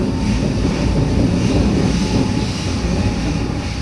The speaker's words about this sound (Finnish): Juna vie meidät Giesingin osaan.